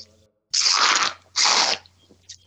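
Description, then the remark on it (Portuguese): Two loud, airy gurgling slurps from a metal bombilla straw drawing the last of a gourd of chimarrão, each about half a second long, with a short pause between them. “Ah, se ouvir alguns roncos aí, é, é da bomba aqui, tá?”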